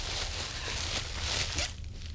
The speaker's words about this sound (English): All right, let's see what this is. Ugh. It's a bottle. Let's see what the bottle is. It's in all this bubble wrap.